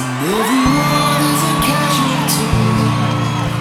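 A loud, dense concert crowd at the Ziggo Dome cheers and whoops, with rising shouted yells over a steady roar of noise and low sustained tones underneath, continuing throughout.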